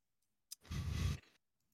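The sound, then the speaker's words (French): A single crisp computer mouse click that sets dice rolling in a game, followed right away by a louder burst of rushing, rattling noise of the dice lasting about half a second, then quiet. No one speaks. “Hop, je clique et techniquement, t'as les dés qui vont voler.”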